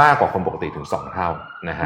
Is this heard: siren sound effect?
yes